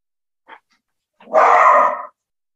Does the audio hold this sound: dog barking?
yes